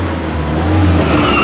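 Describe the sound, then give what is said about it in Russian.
A car speeds along fast before braking, with a loud engine roar and steady road noise, the sound swelling slightly toward the end with no talking. “Тормози, тормози!”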